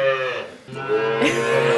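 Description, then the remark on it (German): Calves moo loudly in a calf barn, one drawn-out bellow overlapping another with a brief dip between them, no talking heard. “Bei dem Gemur kommen wir sonst gar nicht zum Reden.”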